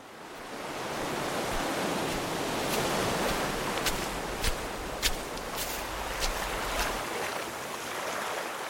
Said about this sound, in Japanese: 地中海沿いに広がる中東の国イスラエル波寄せる浜辺を眺めているとはじけた水しぶきからこの地で暮らす人が想像した短くも壮大な物語が聞こえてきます